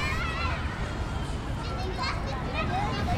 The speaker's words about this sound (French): Sur les pelouses, l'herbe s'étale sous le soleil comme un grand tapis doux. Aux pieds nus des enfants qui jouent. Rient et s'interpellent à tue-tête autour des jeux.